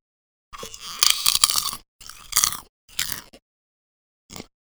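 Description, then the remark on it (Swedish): Loud crunching and chewing of popcorn in four bursts, the first long and dense, then shorter bites, with brittle crackling and no talking. “Och sen så vill jag tipsa om att eh, när man tittar på en bra serie så kan man ju äta lite popcorn.”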